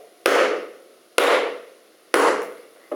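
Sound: knocking on a door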